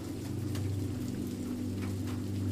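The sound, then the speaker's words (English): Steady, continuous rain patters on a village with soft irregular ticks, carried over a low, constant droning hum, after rumbles have subsided. The sound stays even in level throughout, with no voices. “Now that the rumbles have subsided, to be replaced with a steady patter of rain.”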